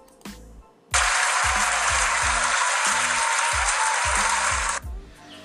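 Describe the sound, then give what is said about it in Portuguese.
A loud, dense burst of applause from a crowd starts abruptly, holds steady for about four seconds, then cuts off sharply, with a thumping rhythmic beat running underneath throughout. “É, gostaria também de agradecer muito a você com a salma de palmas.”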